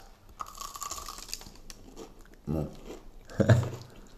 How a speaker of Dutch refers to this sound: Ah, wel, dan ga ik nu de gypsy stick, de stick, de stok verwijderen en een eerste hap zonder saus, gewoon hoor, hoor het. Het, het geknars.